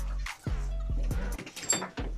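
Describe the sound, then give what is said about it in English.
A dog whimpers in a handful of short, pitched cries spaced roughly half a second apart, over a steady low rumble in the background. “The dog's gonna cut his paws.”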